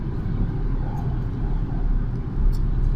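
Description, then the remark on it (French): Steady low rumble of road noise inside a moving car, a dense, continuous drone heavy in the low end with a faint hiss above, no one talking. “je suis en voiture et je suis un petit peu fatigué.”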